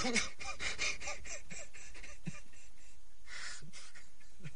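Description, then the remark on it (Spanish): A young man crying helplessly in darkness, with a string of ragged, gasping sobs and shaky breaths coming in uneven bursts, fairly loud and with no talking. “La oscuridad vuelve a tomarlo todo mientras el joven comienza a llorar impotente ante su situación.”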